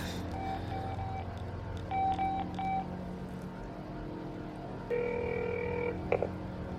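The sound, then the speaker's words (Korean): A phone call goes out to the team leader at the Gimpo post office: a few steady electronic tones, each lasting about a second, sound over a low background rumble, with no one speaking. “아 이거 팀장 전화해가지고 또 어때 나 물어봤을 건데”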